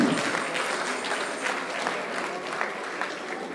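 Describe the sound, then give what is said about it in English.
A small audience claps unevenly for a few seconds, a thin, scattered patter of hands at a steady moderate level, with no voices over it. “Only few people are clapping.”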